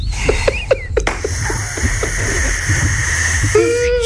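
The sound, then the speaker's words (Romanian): A steady hiss of air sucked in by mouth through pursed lips from a small opening left in a zip-lock bag to vacuum it, lasting a few seconds, with small wet clicks and slurping flecks scattered through it and no speech. “și acolo creez un mic orificiu și sucționez uh, bucal, ca cum, să zic cum, așa.”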